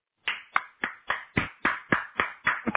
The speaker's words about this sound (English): Yeah. Well, this is your this is the only applause you get.